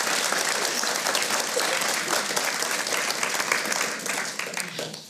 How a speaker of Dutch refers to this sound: Dames en heren, mag ik een warm applaus voor Wim Manuhutu.